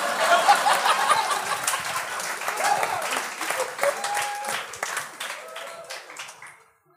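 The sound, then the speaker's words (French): Sustained audience applause, a dense crackle of many hands clapping at once, loud at first and gradually thinning out toward the end, with a few scattered voices and light laughter mixed in. “Encore un peu d'applaudissements, s'il vous plaît.”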